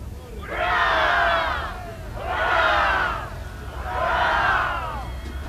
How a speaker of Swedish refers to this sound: Ett kraftigt leverop skallade för honom